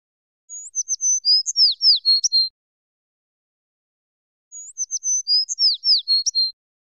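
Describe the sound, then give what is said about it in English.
Acorn woodpecker calls: two separate bursts of rapid, high chirping notes, each about two seconds long with a pause between, heard clearly on their own with no talking. “These native birds are easily recognized by their bold clown like markings and noisy calls.”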